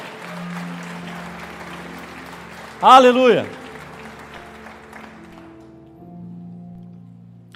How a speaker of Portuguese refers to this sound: Você crê nisso? Aplauda ao Senhor.